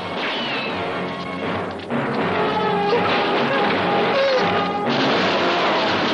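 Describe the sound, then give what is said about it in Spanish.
In a James Bond film scene, a heavy vault door, opened by a soldier entering the access code, crashes open and crushes one of the henchmen amid a loud, dense wall of clattering noise, with a sharp impact partway through and another jolt later, the din never letting up. “Un soldado manipula la clave de acceso y la puerta se abre aplastando a uno de los sicarios.”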